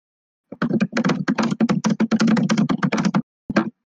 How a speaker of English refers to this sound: I'm gonna I'm gonna have to turn that down when I'm like editing this audio. what the, the typing? I'm definitely gonna have to like work on some of the volumes of, of, these tracks, but that's fine.